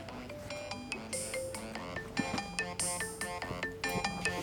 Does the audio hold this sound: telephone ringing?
yes